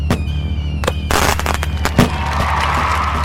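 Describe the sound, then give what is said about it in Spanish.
Fireworks being launched crack and pop in a quick irregular series, with a few sharp loud bursts standing out over a constant noisy rumble and crackling wash, no voices. “Reacios a pedir ayuda al gobierno, intentaron espantar a los úrsidos con ingeniosas medidas como lanzamiento de fuegos artificiales.”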